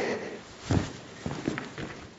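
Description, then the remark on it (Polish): A few soft, evenly spaced footsteps crunch on a hard surface, with a low background murmur between steps, as a person paces out and counts the length of the longer wall of the remains of a huge, half-crushed fuel tank. “Jest on ogromny, zaraz oczywiście będziemy robić kroki.”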